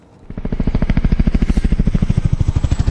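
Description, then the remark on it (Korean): A helicopter flies from left to right, its rotor thumping in a steady, rapid rhythmic chop, entering softly and then holding loud and even with a low, pulsing drone. No one speaks. “헬리콥터 소리군요. 네. 오, 왼쪽에서 시작해서 오른쪽으로 갔네요.”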